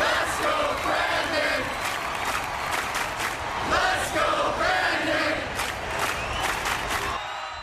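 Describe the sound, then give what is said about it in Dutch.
A large crowd shouts the rhythmic chant "Let's go Brandon" in unison, loud and dense, with cheering and scattered whoops mixed in throughout, heard in a Dave McCormick political campaign ad; the chant is used by Trump supporters to voice discontent. “En het enige dat je hoort is een inmiddels bekende kreet.”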